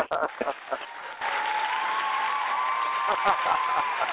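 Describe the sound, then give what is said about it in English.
An audience applauds a guest on a show in a dense, steady wash of clapping that swells after the first second and holds for several seconds, with a few faint voices and cheers mixed in. “That applause is for for both of us.”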